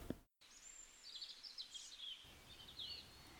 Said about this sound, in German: Aber vielleicht kommt das Piepen ja auch von ganz woanders. Denn auch jetzt in diesen kalten Tagen lassen sich draußen so einige Vögel beobachten.